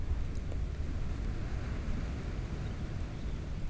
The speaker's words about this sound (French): Il suffit d'écouter les souffles du vent,